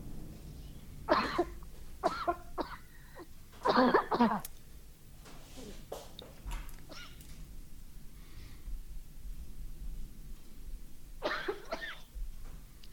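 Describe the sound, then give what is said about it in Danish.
A coughing fit: several harsh, forceful coughs come in quick bursts over the first few seconds, then quieter rasping breaths, and one more cough breaks out near the end. “fik jeg lige et hostanfald her.”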